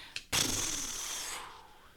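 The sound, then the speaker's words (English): A page turning: a single crisp paper rustle, a brief flick followed by a sustained papery swish lasting about a second before fading out, with no talking. “Page turn noise.”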